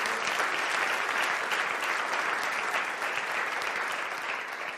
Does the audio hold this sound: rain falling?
no